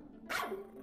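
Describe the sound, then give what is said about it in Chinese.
A small dog named Hachi jumps out of a snowdrift and lets out a single sharp, high-pitched bark at hunters that rings briefly and trails off, with no one talking over it. “听到狗叫声的猎人心想：有猎物上门了。”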